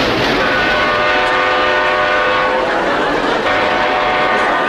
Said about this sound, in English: as soon as Fozzie goes on, a train passes and it, it leaves just in time for him to hit the punchline.